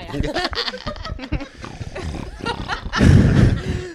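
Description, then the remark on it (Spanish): A stomach rumbles with a low, gurgling growl that swells loudest toward the end, after a stretch of scattered muffled bursts and faint voice sounds. “No soy yo, son mis tripas.”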